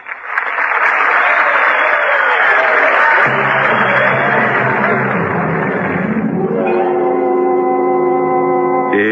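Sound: audience applause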